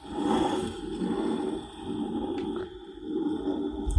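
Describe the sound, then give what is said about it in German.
A metal drink can scraped across a desk in three long strokes, a grainy rubbing noise with a faint metallic ring that swells and fades, with no one talking. “Ich reibe jetzt mal meine Dose über den Schreibtisch.”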